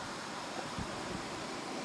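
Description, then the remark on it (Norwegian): A steady, unbroken roar of rushing, gushing water, like a waterfall, pouring out where meltwater from the inland ice sheet once came out, holding an even loudness throughout with no voices over it. “Her fosser eh, det ut der hvor smeltevann i sin tid fra innlandsbreen kom ut.”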